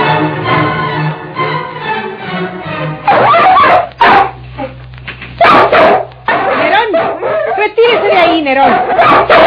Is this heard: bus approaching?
no